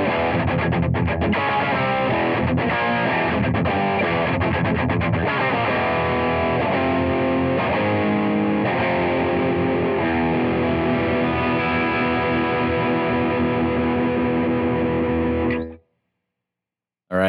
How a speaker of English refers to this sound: So the next clip, I believe, is you playing the humbuckers in the same guitar.